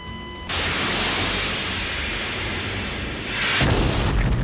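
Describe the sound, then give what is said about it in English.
An F-14 Tomcat fighter jet's steady whine gives way to a loud, rushing roar as it fires a missile at a MiG, then a heavier explosive burst near the end. No voices. “I've got a good lock. Firing.”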